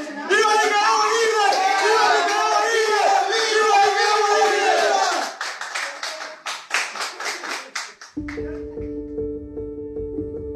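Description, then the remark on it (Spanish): A group of freed prisoners gathered in the middle of a room in a house shouts loudly together for about five seconds, then breaks into scattered, rhythmic clapping before a steady sustained musical tone takes over. “Un grupo de los escarcelados se junta en media sala y grita.”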